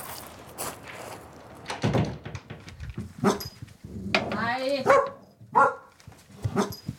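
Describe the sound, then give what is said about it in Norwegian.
Two hunting dogs bark and whine excitedly as they greet visitors and jump up onto the sofa inside a house, a burst of yaps and eager yelps mixed with shuffling movement and faint human voices in the background. “Hundene hilser og jumper opp i sofaen.”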